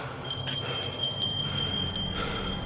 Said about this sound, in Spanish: En esa época surgió la idea de amarrar a la muñeca del difunto una cuerda, pasarla por un agujero del ataúd y atarla a una campanilla que se alzaba sobre la tierra. Si el muerto estaba vivo, solo tenía que tirar la cuerda y sonar la campanilla.